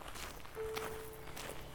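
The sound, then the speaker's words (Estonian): Steady footsteps of people walking in silence along a forest road, several soft crunching steps in an even walking rhythm with a faint outdoor hush behind them. “Nad kõndisid mõne aja vaikides”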